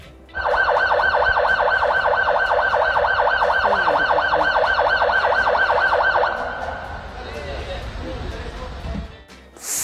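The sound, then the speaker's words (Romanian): Sirens of at least ten police cars in Constanța wail loudly in a fast, steady rising-and-falling yelp for about six seconds, then cut out, leaving quieter traffic and street noise. “E congresul polițiștilor din Constanța Cel puțin 10 mașini de poliție și încă mai veneau”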